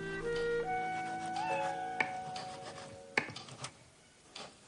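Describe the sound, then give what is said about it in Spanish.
Cats meow in drawn-out, wavering cries at moderate volume as they are fed on a terrace, followed by soft rubbing and a few sharp knocks and clatters. “Le pone de comer a los gatos y saca un catalejo.”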